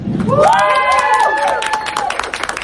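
audience applause and cheering

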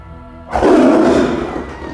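tiger roar sound effect

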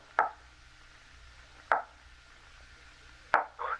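knocking on a door

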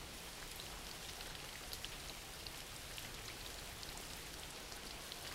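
background rain

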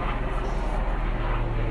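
helicopter flying overhead

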